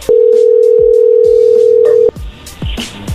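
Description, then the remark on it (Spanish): A loud, steady telephone dial tone after a call is cut off, humming at a single low-mid pitch for about two seconds, then stopping abruptly, leaving faint handling clicks and rustling. No one speaks. “creo que se cortó la llamada, soy yo de nuevo.”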